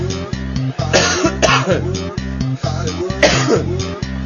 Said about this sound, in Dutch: En af en toe gewoon even tussendoor hoesten.